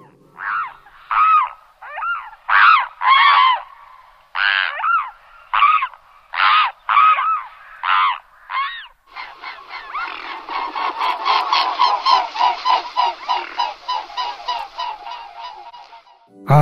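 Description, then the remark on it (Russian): A mute swan gives a series of hoarse, honking calls in short spaced bursts, then breaks into a rapid, continuous rattling chatter. The calls are loud, with no talking. “Шипун, он действительно чаще шипит, у него такой хриплый, такой дребезжащий голос,”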